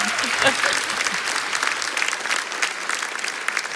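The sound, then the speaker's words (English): An audience claps steadily, a dense wash of many hands applauding at a fairly loud level throughout, with a few brief voices mixed in near the start. “Let's hear it for”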